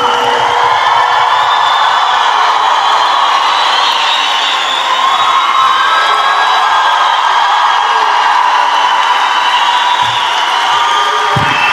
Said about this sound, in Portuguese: Continue aplaudindo, fazendo barulho para Thiago Ventura.